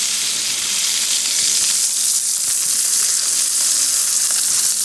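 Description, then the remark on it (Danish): Steady, dense rain hisses continuously, a fairly loud wash of fine crackling patter with a faint low hum beneath and no voices. “Den der regn.”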